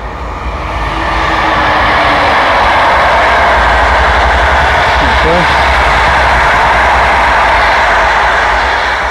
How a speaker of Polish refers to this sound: Pędzi sobie pociąg.